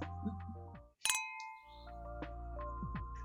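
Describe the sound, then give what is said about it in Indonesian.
A single sharp clink of glasses in a toast rings out clearly, its bright tone lingering briefly before a steady, droning background resumes. “But cheers. Cheers.”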